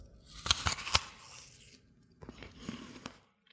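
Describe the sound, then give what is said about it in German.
A crisp bite into an apple, then a run of crunchy chewing bursts, fairly loud, with a pause before a softer second round of chewing, as someone eats the apple attentively to taste and hear it. “Jetzt rieche ich es nochmal dran und jetzt achte ich mal, wie hört sich das denn an, wenn ich abbeiße?”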